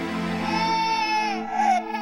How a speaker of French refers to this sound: Do you hear that? Do you hear that crying? Plus il récitait ses prières, plus le fantôme du bébé hurlait.